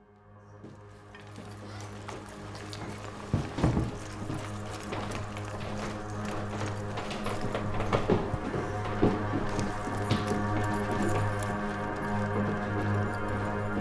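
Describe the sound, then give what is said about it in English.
Footsteps thud down a staircase in Christian's parents' house as someone walks downstairs to his room, a handful of irregular steps set against a constant low electrical hum, with no one speaking. “I'm walking downstairs to see Christian's room.”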